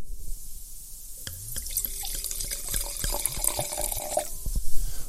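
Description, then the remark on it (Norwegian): Wine being poured into a glass: a steady splashing, gurgling stream that rises in pitch as the glass fills, with a few light clinks and a soft thud at the end. No one speaks. “Men vi skal da til, eh, til Sør-Afrika, og jeg tenkte jeg skulle helle litt oppi glasset her jeg sitter.”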